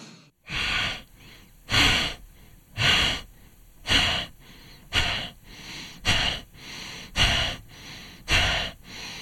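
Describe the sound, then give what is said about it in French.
Steady, rhythmic breathing in a deep abdominal breathing exercise: about eight strong, airy breaths in a regular cycle, each a broad whooshing burst of air followed by a short pause, with no talking. “Cette dernière phase apporte un souffle de paix et contrebalance l'effet tonique de la respiration abdominale. Recommençons l'exercice une nouvelle fois.”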